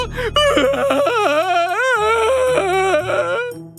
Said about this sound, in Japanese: 豚尾は焦るとまた泣き出しました。